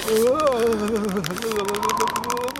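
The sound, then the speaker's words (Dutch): Rapid, continuous clicking of chattering teeth, fairly loud, over a wavering hummed voice, from people standing in swimsuits in the snow in the mountains, shivering with cold. “Dat geluid dat je nu hoort, dat waren onze tanden die klapperden.”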